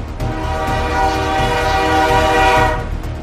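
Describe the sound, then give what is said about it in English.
A train roars past, a sustained shrill horn blaring over the heavy, rushing rumble of wheels on the tracks for about three seconds, with no voices. “The train goes screaming down the tracks”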